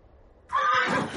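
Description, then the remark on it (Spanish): A horse whinnies loudly as it passes by, a single shrill, wavering neigh that breaks out suddenly after near silence and carries on to the end. “Un caballo le pasa por delante.”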